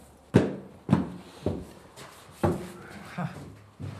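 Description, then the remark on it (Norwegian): Heavy footsteps thud down a set of stairs at a steady, unhurried pace, about six steps in four seconds, resonant, descending into a German-built 1940-model ammunition bunker entered through a door in the snow, on the mainland side about 4-5 km south of the Tromsø Bridge, Norway. “Nå går vi ned i en bunkers her.”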